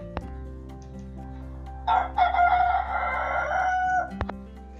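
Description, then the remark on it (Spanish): A rooster on a farm lets out a single drawn-out crow at dawn, marking a new day, lasting a couple of seconds, clear, rising then trailing off over a low steady background hum. “Y del gallo”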